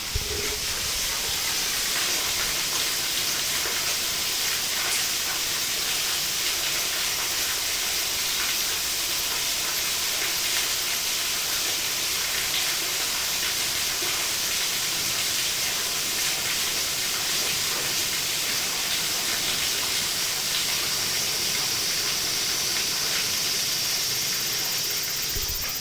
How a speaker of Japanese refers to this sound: じゃあ少し私たち黙って、うん、この滝の音をラジオ沖の皆さんに聞いていただきましょうか。